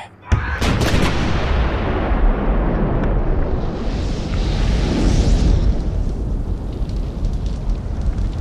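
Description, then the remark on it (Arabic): An artillery shell of about 250 kg is loaded into a cannon and fired by Corporal Said Ali Chabuk with a sharp, heavy boom, followed by a long, loud rumbling roar as it hits the coalition ship Ocean trying to break through the strait; the roar swells again midway and slowly fades. No voices are heard. “ها هي القذيفة تصيب سفينة أوشن إحدى أهم سفن التحالف التي تحاول اختراق المضيق”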